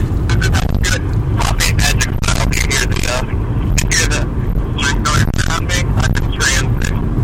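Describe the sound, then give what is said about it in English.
A steady, loud low rumble of road and engine noise from inside a moving car fills the whole recording, with voices talking over it throughout. “Yeah, we're in transit, but uh, but uh, we're in a car.”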